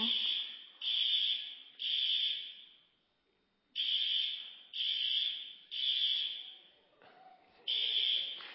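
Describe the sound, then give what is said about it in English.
An electronic alarm system blares in loud, evenly spaced high-pitched pulses, three beeps, a brief pause, then more pulses, steady with nothing else competing. “So, we are going to quick try to figure out what is going on with the alarm system.”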